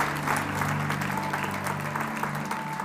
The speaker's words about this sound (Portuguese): Se você crê, aplaude e glorifique ao Senhor em nome de Jesus.